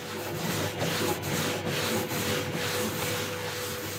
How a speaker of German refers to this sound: Das ist ein Gerät, auf dem kreisförmig ähm, ein Abrieb stattfindet. Also oben ein Schleifpapier, unten das Material und dann dreht sich das.